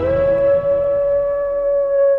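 A single sustained wolfdog howl holds one steady, slightly falling note for about two seconds, loud, with no talking over it.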